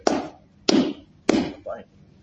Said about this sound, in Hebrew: מה זה כפיים? מה אני עשיתי? זה כפיים. מה זה? מחיית כפיים.